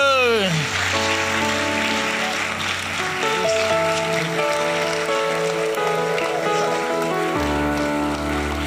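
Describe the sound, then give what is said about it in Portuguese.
A crowd claps joyfully, a dense crackling patter that holds for the whole stretch, mixed with loud sustained music and singing voices. “Aplaudimos com alegria.”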